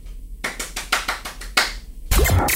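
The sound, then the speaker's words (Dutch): Applause: a string of sharp, separate handclaps that builds into a louder, denser burst of clapping at the end. No voices are heard. “er klinkt applaus.”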